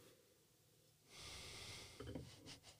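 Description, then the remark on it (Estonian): A drawn-out sniff, as someone deeply inhales the aroma of a half-year-old white wine from a glass, followed by a couple of shorter breathy sniffs in an otherwise quiet setting. “suur nuuskimine käib”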